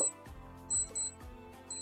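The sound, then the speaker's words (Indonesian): A sahur alarm beeping in short, high-pitched electronic bursts, repeating a few times at a steady interval over a low, rumbling background. “ini udah waktunya sahur alarm Oh, sahur oh.”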